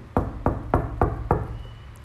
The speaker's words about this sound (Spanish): Voy a tocar aquí la mesa donde estoy.